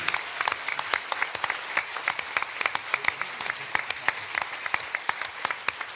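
An audience at a live audio drama event applauds steadily for the Lübbe Audio staff, dense overlapping claps at moderate loudness with no pauses and no speech on top.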